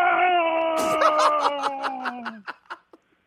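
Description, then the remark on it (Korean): A man's voice imitates a Tyrannosaurus roar as one long, loud, steady yell lasting a couple of seconds. It slowly drops in pitch, then breaks into short choppy bursts like laughter. “예, 티라노사우루스 우는 소리입니다.”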